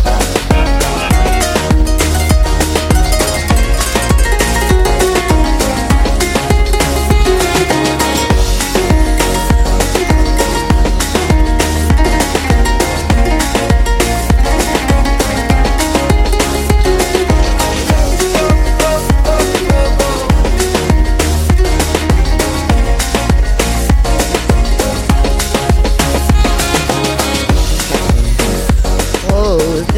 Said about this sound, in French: c'était le son d'… ….